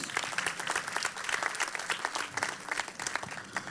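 A large crowd at Casa de Jesús applauds God loudly and steadily after a prayer, dense overlapping claps filling the space for several seconds without pause, with no voices standing out.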